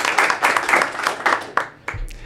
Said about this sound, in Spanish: Un aplauso para ti, por favor. Gracias por estar acá.